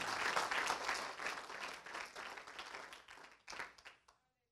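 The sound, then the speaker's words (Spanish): A church audience applauds the Lord together in a dense, steady burst of many hands clapping, loud at first, easing slightly, briefly dipping and swelling again before stopping abruptly after about four seconds. “¿Puede darle un aplauso al Señor usted?”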